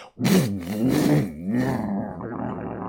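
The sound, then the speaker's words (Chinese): A truck engine roars loudly for about three seconds, its deep rumbling tone swelling and dipping in pitch as if revving, with no talking over it. “他话音刚落，突然身后传来了汽车引擎的轰鸣声，”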